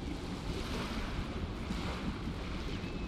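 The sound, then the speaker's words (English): Open sea waves churn and roll in a steady, dense wash, with gusting wind buffeting the microphone throughout. No voices, just continuous, full surf noise. “The other way, the open sea, vast, beautiful, violent, a landmass irradiated in the distance rising to break the water's surface.”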